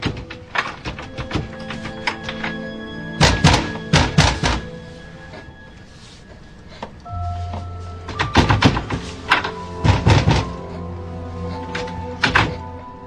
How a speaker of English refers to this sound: I even make up a game called I tell him that no matter how loud someone knock on the door, the object is not to say a word, no matter what. In no time, the pounding on the door starts.